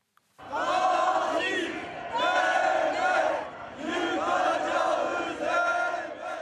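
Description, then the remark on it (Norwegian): Hundreds of demonstrators in the streets of Istanbul, Turkey, shout in unison in the evening, chanting that they will destroy the murderer state: loud rhythmic chanting in repeated bursts with brief dips between phrases, many voices blending into a dense roar. “Vi vil ødelegge morderstaten, ropte hundrevis av demonstranter som hadde tatt til gatene i Istanbul i går kveld.”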